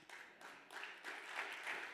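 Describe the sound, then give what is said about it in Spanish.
A crowd applauding loudly on a preacher's call for another round of applause during a Spanish-language sermon: a dense, steady wash of many hands clapping together, building slightly in loudness over two seconds with no voices standing out. “Vamos, denle otro aplauso fuerte.”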